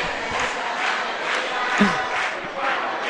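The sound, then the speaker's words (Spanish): A costumed crowd shouts and cheers in the background, a dense wash of many voices rising and falling in rhythmic swells, like a chant, with no single voice standing out. “Ya lo escuchan de fondo. Ahí está la gente de los …. Disfrazados.”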